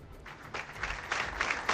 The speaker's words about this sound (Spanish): roto por los aplausos de miembros de la corporación municipal y vecinos y vecinas conmocionadas todas ellas tras conocer los hechos ocurridos en un garaje de la calle Monte Cerredo en Castro.